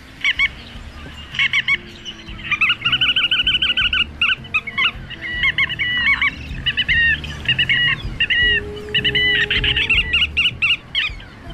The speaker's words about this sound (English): Well, part of that sounded like Godwit, sort of. The non-stop, direct flight, migration champion of the world, Limosa lapponica, the bar-tailed Godwit.